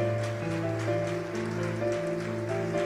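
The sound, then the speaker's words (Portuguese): A church audience applauds in a dense, steady wash of clapping that continues for the whole clip, mixed with sustained keyboard or organ chords holding underneath. “A igreja pode aplaudir mais uma vez.”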